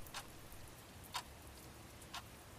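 A room clock ticks softly and steadily in a regular rhythm, three crisp clicks spaced about a second apart over a faint background hiss.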